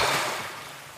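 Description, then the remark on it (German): Sea water laps gently on a beach on a sunny day, a soft continuous wash that slowly fades over a brief moment, with no voices present. “Sonne, Strand, das Meer plätschert.”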